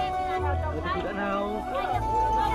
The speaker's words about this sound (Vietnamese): Tiếng xì xèo những cánh tay chỉ trỏ vào trong sân